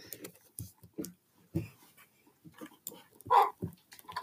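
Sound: dog barking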